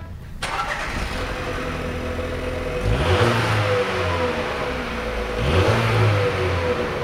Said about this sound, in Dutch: is toch een heel bescheiden geluid, vind ik weer, persoonlijk. Bescheiden inderdaad, heel bescheiden. Kleine motoren, eh, toch wel een beetje pk's erin, maar dat is een heerlijke gezinsfatuur.